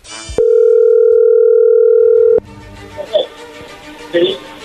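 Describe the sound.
A loud, steady telephone dial tone hums at one pitch for about two seconds while a phone call is placed, then cuts off abruptly, giving way to faint line noise and brief murmurs of a voice.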